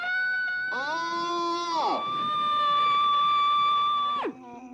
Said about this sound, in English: We just send our screams to other countries. Well, it's happening. From Brooklyn to Denmark, people are letting them hear it.